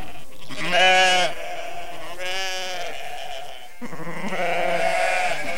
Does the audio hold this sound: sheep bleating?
yes